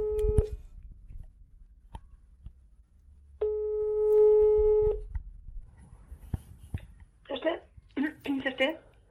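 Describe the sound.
An outgoing call's ringback tone: a short beep, then one steady, fairly loud electronic ring lasting about a second and a half, followed by a pause and then people starting to talk.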